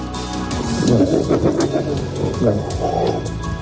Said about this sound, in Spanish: En este momento Dakota tiene un trozo de carne que está comiéndose en el suelo y otros lobos la rodean intentando quitárselo.